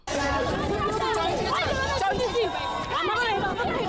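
A loud, dense crowd of around 20 mostly black and queer protesters shouting "We're queer!" as they confront thousands marching in Johannesburg Pride, South Africa, in 2012; many voices overlap in a continuous clamor with no pauses.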